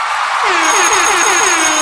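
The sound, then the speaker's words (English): A Teams call ringtone plays with about five quick, evenly spaced tonal blips in a steady rhythm over a bright, hissy electronic background. It is fairly loud, and no one speaks. “Uh, I got a Teams call coming through.”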